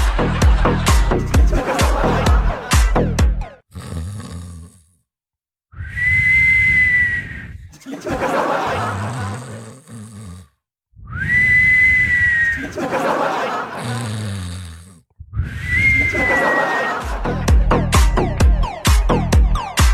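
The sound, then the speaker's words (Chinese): A voice mimics a girl's rough snore in her sleep that ends in a short, steady high whistle, repeated three times with brief pauses between, while a crowd laughs at the start and end. “关键妈打完呼了，后面还他妈吹个口哨，啊！”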